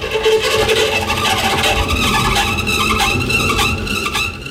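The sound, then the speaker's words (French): A loud, steady roar of rushing air from the wind tunnel of the Institut aérotechnique, blowing a headwind at a track bike carrying a mannequin of cyclist Benjamin Thomas to simulate speed, its pedals turning mechanically, with a mechanical whir and faint rattling running through it, continuous. “On envoie un vent de face pour simuler la vitesse sous la supervision de claude Clodoald Robert, directeur de l'Institut aérotechnique.”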